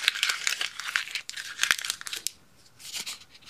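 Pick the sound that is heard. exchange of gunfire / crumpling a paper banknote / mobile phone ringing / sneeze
crumpling a paper banknote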